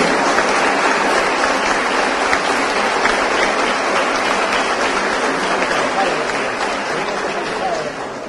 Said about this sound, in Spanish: Por primera vez pudimos clasificar en dos deportes de conjunto, en béisbol y en voleibol femenino, con los chicos del Plátano Power y nuestras admiradas y queridas reinas del Caribe. Un aplauso a ambos.